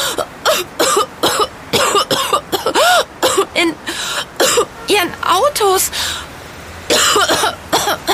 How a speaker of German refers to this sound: Hast du dich etwa erkältet? Nein, ich. Ich weiß nicht, warum ich plötzlich huste. Ich weiß es. Das sind die Abgase der Autos.